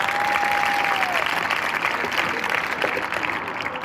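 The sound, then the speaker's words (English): A church audience at the third service breaks into loud, sustained applause for its own service, a dense wash of clapping that holds steady for the whole stretch, with a thin steady tone fading out early on. “Let's give a big round of applause to our third service.”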